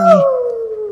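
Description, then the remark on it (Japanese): A voice imitates the call of the Waffo Bird, an imaginary bird: one loud, sustained wail that starts with a rough burst and then glides slowly downward in pitch, sounding almost like a dog's howl. “視聴者の皆さん聞こえますかこれが幻の鳥ワッフォーバードの鳴き声です”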